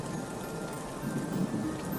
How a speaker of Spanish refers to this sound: Pero un día, mientras miraba por la ventana y en medio de una fuerte lluvia, vi a un extraño que estaba en la calle.